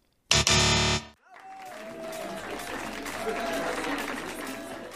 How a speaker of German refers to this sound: Da höre ich doch schon wieder Feier. Haben wir etwa was gewonnen?